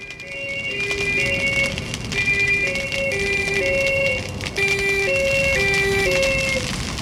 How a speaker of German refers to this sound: Martinshorn und Blaulicht. Wenn ich das höre, läuft mir manchmal kalter Rücken ab. Es muss etwas Schlimmes passiert sein. Vielleicht braucht es die Feuerwehr, die Polizei oder die Sanität für zu löschen oder zu retten.